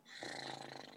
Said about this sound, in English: If you hear coughing in the background, it's my uh, Spaniel's got a cough. Sorry, it's not me.